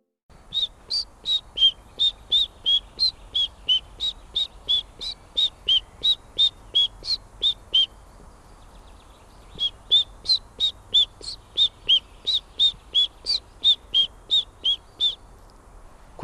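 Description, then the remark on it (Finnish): A person whistles an imitation of a chiffchaff's song: two long runs of evenly spaced, high, two-pitched notes with a short pause between, clear, with no talking. “kohan moni huomasi, että ei ole aito tiltautti?”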